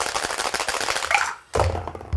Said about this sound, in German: Wir fangen mal an. Ich würfel mal.